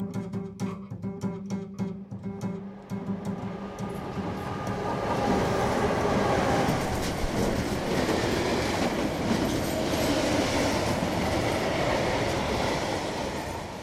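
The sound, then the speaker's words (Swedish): A train travelling to Stockholm rolls steadily along the rails, heard from inside a compartment: a continuous low rumble with rhythmic clacking, tonal hums early on, then a fuller, louder roar that holds to the end. “Nästa dag tar jag tåget tillbaka till Stockholm.”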